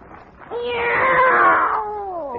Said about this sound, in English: It's a cat, Miss Brooks. I brought him over to keep Minerva company.